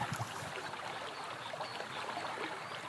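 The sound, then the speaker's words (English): A hot drink of coffee and chocolate being poured, a steady, continuous trickling splash of liquid that runs unbroken for a few seconds, moderately loud, with no talking. “Just making a nice hot drink now coffee and some chocolate.”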